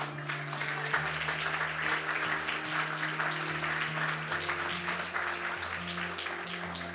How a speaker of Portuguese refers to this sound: Vocês estão aplaudindo?